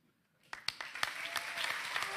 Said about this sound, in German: Applaus